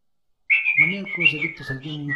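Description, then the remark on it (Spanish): After a brief silence, someone whistles loudly and continuously, the shrill tone wavering up and down in pitch, with a lower voice-like hum sounding underneath. “Hagan ruido, chiflen, chiflen, chiflen.”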